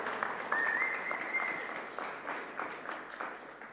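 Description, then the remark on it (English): A crowd applauds a panel being invited up to speak, a steady wash of clapping that stays fairly loud throughout, fading slightly toward the end, with a brief high whistle cutting through early on. “All right, everyone give our amazing panel a big pre clap because they're incredible.”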